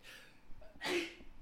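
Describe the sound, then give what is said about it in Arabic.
A single sharp sneeze bursts out after a brief intake of breath, loud and noisy for a split second before fading into quiet. “الحمد لله يرحمك الله يهدينا ويهديكم الله كنت تشيل المايك ونعطس ولا؟”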